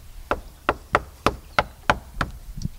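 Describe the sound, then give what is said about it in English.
Seven solid knocks on the heavy wooden front doors of a castle at Planting Fields, evenly spaced and fairly loud, each a dull thud with a short resonant ring, followed by a softer final tap. “Can you knock on these heavy castle doors?”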